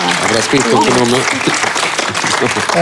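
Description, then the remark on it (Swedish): Steady, dense applause from an audience fills the whole stretch, loud and continuous, with voices speaking over the clapping. “Och så får ni gärna applådera.”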